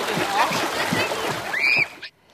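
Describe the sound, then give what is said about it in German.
Noisy watery splashing and sloshing as a person dives under the water, running for about two seconds, with a brief vocal cry over it, then a final splash before it cuts to near silence. “Tschüss, ich tauche ah! ab.”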